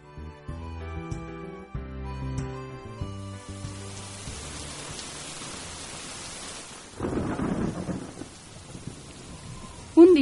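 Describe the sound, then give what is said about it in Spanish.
A short musical phrase fades into steady, heavy rain hissing, with deep rolling thunder swelling midway and a sharper crack near the end. “de mucha lluvia, una zarigüeya perdió su casa.”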